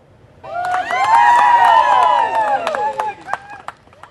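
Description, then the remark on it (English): A crowd erupts in loud, overlapping cheers and whoops that swell for a couple of seconds, then thin out into scattered shouts and a few sharp claps, as a seven-week-old deaf white puppy, Toffee, is lifted out of a 15-metre crevice behind a house in Alabama after more than 30 hours trapped. “Yeah, a lot of cheering after the seven week old pup was finally lifted out of the 15 metre crevice.”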